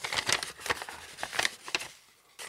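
Crisp paper rustling and crinkling in quick bursts as a sheet of paper is slid out of an envelope, with a brief pause near the end before another rustle.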